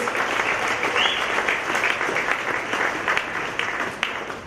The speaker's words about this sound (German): Ja, vielleicht einen kurzen Applaus.